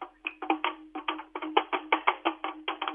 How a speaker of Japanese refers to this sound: まず、このバタバタ市の豆太鼓の音を聞いてください。